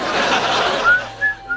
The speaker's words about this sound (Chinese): 人家板子本子上写让你哼着小曲儿走，你这怎么哼着哼着口哨上厕所去？你要上哪？